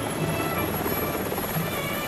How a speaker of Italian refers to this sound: Praticamente c'è rumore perché sono in elicottero, mi perdoni.